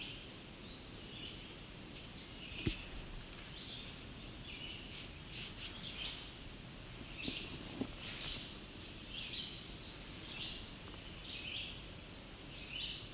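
Sharp, short tick notes of a male chestnut-sided warbler sound at irregular intervals, faint, over a soft outdoor background of rustling and insect-like buzzing. No one speaks.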